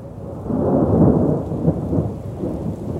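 A thunderstorm with a deep, rolling rumble of thunder over steady rain, loud and continuous throughout with no voices.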